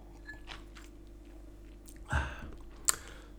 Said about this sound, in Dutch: Ik neem nog even een slokje water.